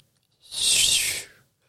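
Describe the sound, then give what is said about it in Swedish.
A single long, breathy shushing from a voice imitating ocean waves: a soft hiss that swells up, holds for about a second and fades away, heard alone. “Hur låter ljudet av vågor? Är du beredd?”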